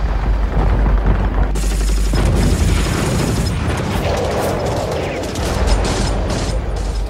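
Loud, booming gunfire over the sky of Indonesia: a dense barrage of rapid shots and heavy blasts rolls on without pause, with sharper repeated cracks stacking up toward the end. No voices.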